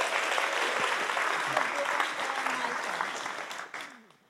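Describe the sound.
An audience applauds steadily for about four seconds, a dense wash of many hands clapping that holds strong, then fades out quickly at the end. Some voices murmur faintly underneath.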